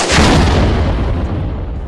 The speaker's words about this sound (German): Erneut ein Schuss.